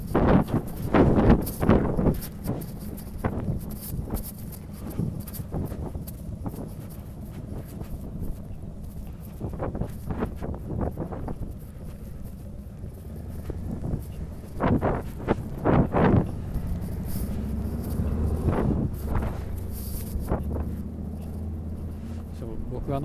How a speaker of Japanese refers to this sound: コンビニの前でちょっと車がエンジンオンのまま止まってるのかああれですねバイクがうるさいですね